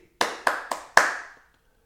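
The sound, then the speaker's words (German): Four slow, sharp hand claps, evenly spaced with a brief ringing tail after each, the last one loudest; no voices are heard. “Die Kolleginnen wollen keinen Applaus, sie wollen keine Wertschätzung Sie wollen eine Marie.”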